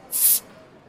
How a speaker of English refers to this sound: Pop a bottle.